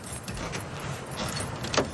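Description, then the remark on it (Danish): Keys jangle and clink in several short metallic bursts as they are tried in a door lock, ending in a sharper click, over a steady low rumble of background noise, with no talking. “så øh, skal jeg se, om nøglerne passer her.”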